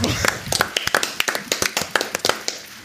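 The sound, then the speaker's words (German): Hand clapping from what sounds like a small group, a steady patter of sharp claps, fairly even in rhythm, lasting a few seconds with no talking over it; applause for both teams. “Also ich würde oh, sagen, oh, das gibt erstmal einen Applaus für ja. beide Teams.”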